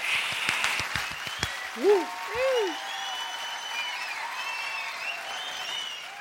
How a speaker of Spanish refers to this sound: Aplauso, aplauso, todos.